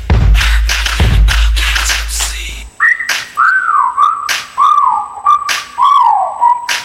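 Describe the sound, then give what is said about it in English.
Loud, thumping music cuts off abruptly, followed by a person whistling at a woman, a string of about five sliding, rising-and-falling notes, clear, with short pauses between them. “Okay, time to whistle at her.”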